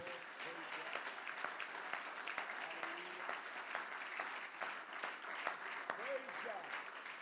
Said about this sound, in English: Let's clap our hands one more time to the